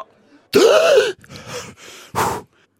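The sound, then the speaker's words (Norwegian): A loud exhale after holding the breath bursts out with a strained, voiced edge, followed by a few softer breathy puffs and one more short, forceful breath near the end. “Dere kan puste nå!”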